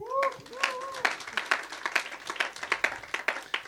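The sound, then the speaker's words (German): A small group claps in quick, uneven bursts of sharp hand slaps, moderately loud, opening with a brief rising-and-falling vocal cheer before the clapping carries on by itself; the applause is for the technical crew or the cable microphone. “Ah, komm, einen Applaus.”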